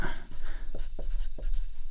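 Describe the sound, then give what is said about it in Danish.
Scratching of a pen or marker on a surface, a run of short strokes and taps across a couple of seconds as the Danish word "krydsfunktionelle" (cross-functional) is written out by hand, with no talking. “Og skal jeg bruge meget tid på at skrive krydsfunktionelle, jeg kan ikke stave til det pludselig.”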